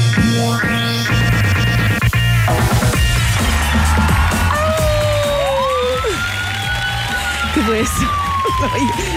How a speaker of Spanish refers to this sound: Ah, sirena va con perros aullando.